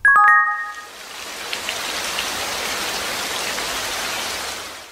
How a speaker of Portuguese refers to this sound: Os moradores de Dubai, nos Emirados Árabes, contam as chuvas nos dedos. É um fenômeno raro no deserto que ocorre em média 10 vezes no ano. Com frequência, quando a chuva cai nesta parte do Golfo Pérsico, os moradores se perguntam se o fenômeno seria